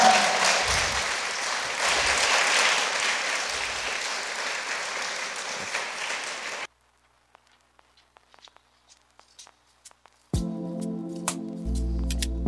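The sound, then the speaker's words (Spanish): An audience breaks into dense, steady applause for several seconds, then it cuts off abruptly; after a near-silent gap with a few faint clicks, a sustained tonal musical sound begins. “Y porque le damos un buen aplauso y vamos a dejar...”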